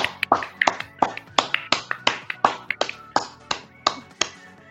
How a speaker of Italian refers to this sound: Quindi ragazzi... Applauso, applauso. Sì.